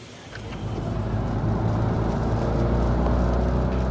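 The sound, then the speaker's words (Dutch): A facelifted Fiat Panda Cross drives along on a test drive, its engine a steady low hum with a slight rise as it gets going, backed by continuous road and wind noise and no talking. “Via Panda Cross eh, een mooi rondje te gaan rijden.”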